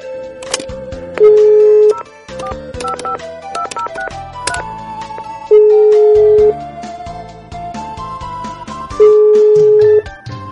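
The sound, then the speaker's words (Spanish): An outgoing phone call rings through the earpiece: three steady ringback tones, each about a second long and spaced a few seconds apart, sounding over busy background music. “A ver, déjale hablar su teléfono.”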